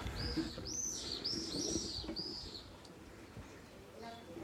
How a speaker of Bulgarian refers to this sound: Тези птички пеят в а, село Априлци, в а, превъзходната вила Релакс